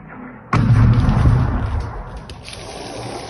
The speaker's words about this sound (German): Ein Bewohner eines Hochhauses in Lviv hat drei der Explosionen auf dem Handy gefilmt. Wie aus dem Nichts schlagen da die Raketen im Stadtgebiet ein. Man sieht einen Feuerball und hört etwas später auch die Detonation.